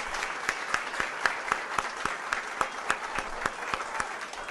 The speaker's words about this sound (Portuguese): Queria trazer aqui um abraço. Me encontrei agora há pouco. Da nossa querida governadora Isolda Sela, para quem eu peço uma salva de palmas.